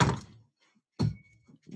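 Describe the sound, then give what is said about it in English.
Two dull, solid wooden door thunks about a second apart as someone fetches wine delivered at the door, followed by faint shuffling and small handling noises in otherwise quiet surroundings. “Please hold, and, I have to get my wine. It's been delivered at the door.”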